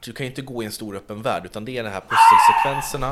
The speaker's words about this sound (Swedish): Oj, vad hände Oj, där? Oj, det är min hund.